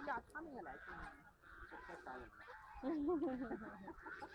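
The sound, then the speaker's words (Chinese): Whooper swans call loudly in a steady stream of overlapping, brassy honks. One long, wavering trumpet-like call stands out near the end. “你别说，你别说，人家的嗓门真是不小。”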